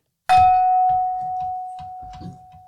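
A small gong is struck once, giving a bright, clear ring that sustains steadily and fades slowly over a few seconds, with soft low rumbles and movement underneath.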